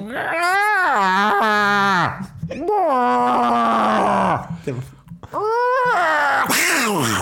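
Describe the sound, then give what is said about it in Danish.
A person imitates fighting cats with three loud, drawn-out yowls that waver and bend in pitch, separated by brief pauses. “kigger på den anden kat, og så udstøder de øh, sådan nogle lyde, der lyder lidt ligesom, hvis man øh, torturerer Chewbacca”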